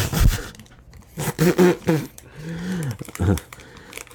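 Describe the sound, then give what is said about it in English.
Crinkling and rustling of a small paper receipt from Busy Bee in a few short bursts, with a voice murmuring and humming between the handling noises. “this? A receipt? What, is, what was I buying?”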